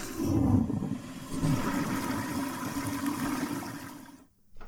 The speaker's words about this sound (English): Chris, go ahead and slam this one. Chris's flush of the week.